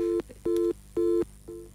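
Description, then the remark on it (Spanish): A telephone busy signal: steady electronic beeps pulsing on and off in an even rhythm, about three full tones and the start of a fourth, clear with no talking. “Por eso el teléfono estaba ansioso, quería, decía tú, tú, tú, tú, no llegaba a decir tú lentos.”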